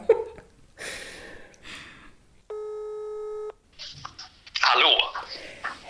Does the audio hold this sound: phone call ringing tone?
yes